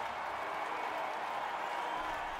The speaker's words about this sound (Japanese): 大きな歓声が起きています